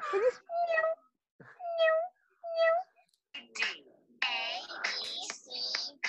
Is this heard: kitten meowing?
yes